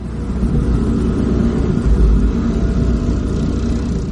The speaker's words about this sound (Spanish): En el camino del desierto, un coche avanza.